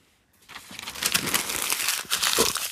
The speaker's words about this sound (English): that was me crumpling up my notes for that.